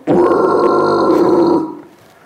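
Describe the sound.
A single drawn-out guttural growl made by a person deliberately stretching out a throat-clearing at the top of the mouth, like a harsh throat-clearing held for over a second, loud, then tapering off into quiet. No talking alongside it.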